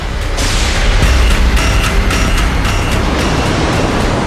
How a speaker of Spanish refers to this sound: Agua, agua, agua. Al final, tal y como sospechaba, llegó lo que tenía que llegar. La, tormenta.